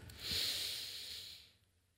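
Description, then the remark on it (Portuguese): A single long, deep diaphragmatic breath, given as a demonstration: a broad airy hiss that swells quickly, holds for about a second, then fades out, with no talking. “Jesus fez respiração diafragmática, né, pastor?”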